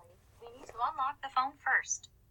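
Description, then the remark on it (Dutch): The Bixby voice assistant activates on a smartphone: a brief burst of synthetic-sounding speech ending in a bright, high electronic chime, over a faint steady low hum. “ik hoor jouw telefoon, hoor ik afgaan”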